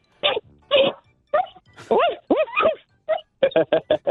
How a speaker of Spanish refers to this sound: Es mi, perro, que voy llegando a mi casa, que me está ladrando.